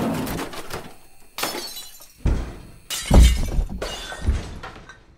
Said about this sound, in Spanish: De repente, escuchó ruidos extraños en la segunda planta. No prestó atención, pero dichos ruidos comenzaron a ser más y más fuertes. Y entonces escuchó cómo levantaban las camas, rompían las ventanas y caían objetos al azar.